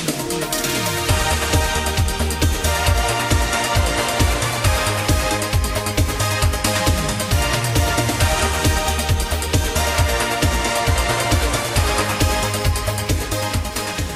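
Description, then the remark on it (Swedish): A late-1980s dance-pop track plays loud, with a driving, steady eighth-note bass pulse, punchy drums and bright synths filling the mix throughout, and no one talking over it. “Lyssna framförallt på soundet. Den låter så här.”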